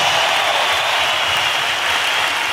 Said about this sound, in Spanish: Un aplauso chido para ellos